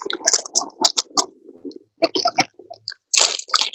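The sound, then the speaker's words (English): Wet, crunchy chewing right up against the microphone: an irregular run of sharp clicks, smacks and squishy bursts with a few short pauses, loud and with no talking. “take whatever you eat away from the microphone.”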